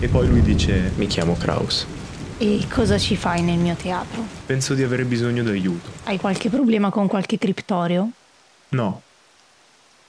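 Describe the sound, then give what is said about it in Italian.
A steady hiss of stormy rain runs beneath two people talking, then cuts out partway through, leaving their voices alone in near silence. “un temporale terribile colpisce Ultima”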